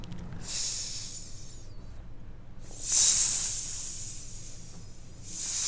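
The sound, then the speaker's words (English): Sizzling fajitas hiss and crackle in bright, high-pitched bursts that swell and fade, loudest around the middle, with no talking over them. “These topics are sizzling hot today. Oh, oh wow! it's like fajitas walking by us. We can hear them.”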